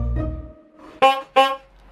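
Two short, loud blasts of a horn in quick succession, brassy and buzzing, sounding the end of a timed round, with a low rumble fading away just before.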